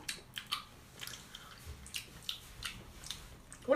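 Wet chewing with soft squishy bites and sticky mouth sounds in an irregular rhythm, as someone munches on a jelly bean that tastes either of peach or of vomit; no talking.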